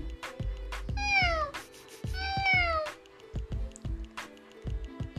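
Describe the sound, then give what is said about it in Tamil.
Two drawn-out cat meows, each a falling wavering cry, come one after the other over a steady rhythmic thumping beat that keeps going after the cat falls quiet. “இந்த ராஜாவோட பூனை மெதுவாக அதுக்கிட்ட போய்”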